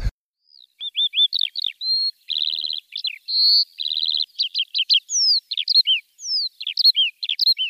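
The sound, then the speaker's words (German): Skylarks sing over the Tempelhofer Feld, a former airport, in a long, unbroken stream of rapid chirps, trills and slurred whistles, high-pitched and fairly loud, with short buzzy runs and varied notes tumbling one after another. No one speaks. “Ja, hier auf dem Tempelhofer Feld hört man Feldlärchen.”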